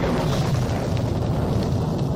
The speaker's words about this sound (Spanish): ¿Veis, hermano? La tormenta se aleja.